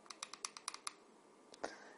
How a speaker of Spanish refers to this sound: Esto tiene 95 vatios de máximo. Luego, si le damos cuatro clics rápidos,